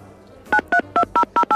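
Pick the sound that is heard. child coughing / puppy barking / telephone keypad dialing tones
telephone keypad dialing tones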